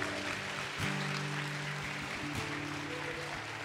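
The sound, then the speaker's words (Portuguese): A church audience claps steadily and continuously in praise to the Lord for the word of God, a dense wash of applause, with sustained low keyboard chords humming underneath throughout. “Quantos amam a palavra de Deus, levanta a mão e aplauda ao Senhor por ela.”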